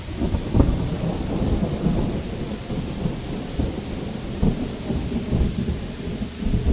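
Steady, heavy rain pours down while deep rumbles of thunder roll underneath, swelling in a few low surges during a loud, continuous thunderstorm with no voices.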